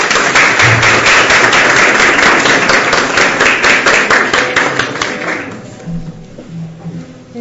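A crowd applauds a poetry recitation steadily, dense overlapping claps for about five seconds before thinning out and fading, leaving a quiet murmur at the end.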